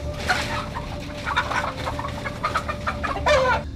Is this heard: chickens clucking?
yes